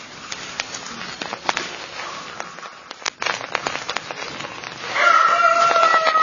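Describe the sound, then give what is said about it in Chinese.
Tea leaves crackle and pop in a hot wok during the kill-green (shaqing) stage of tea making, tossed quickly by hand, a dense, irregular patter of sharp snaps over a soft rustle. Near the end a louder, steady high-pitched tone joins in. “这个噼里啪啦的声音是 锅温的声音。就是锅温与茶叶之间，你要听得到茶叶有啪啪的声音，那它才杀得熟嘛。”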